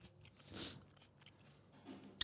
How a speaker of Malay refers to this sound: Maafkan saya. Tengah mengunyah.